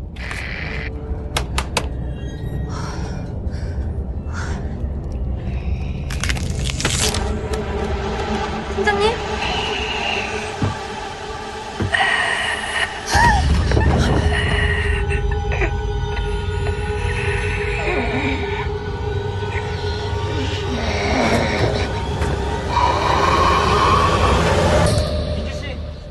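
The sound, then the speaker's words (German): Guttural zombie groans and snarls rise over a steady rumbling train in a scene from the film Train to Busan, staying loud throughout, with clattering knocks and a sudden harsh surge of growling about halfway through. “Also jetzt würde ich mal sagen, scheiße, Zombies sind overdone und ich höre da Zombie-Gegröle und weh.”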